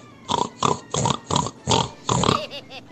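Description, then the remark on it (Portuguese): A voice imitates a pig, giving six rhythmic, grunting oinks in quick succession, loud, followed by a brief softer vocal trail. “Porque eles são tudo uns porco.”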